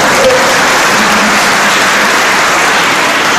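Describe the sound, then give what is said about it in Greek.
Steady, dense applause from an audience, a loud continuous wash of many hands clapping at once with no voices standing out. “Χτυπάτε σε μένα”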